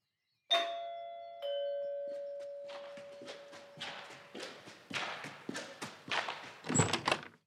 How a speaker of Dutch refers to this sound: Half hijgend bel ik nogmaals aan.